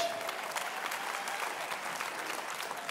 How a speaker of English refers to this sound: And if you believe it, give God a good hand clap of praise. Come on, church.